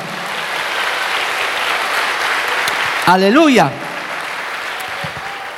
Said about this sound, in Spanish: Alabado el nombre de Jesús. Eso, dale un aplauso al Señor, amado hermano.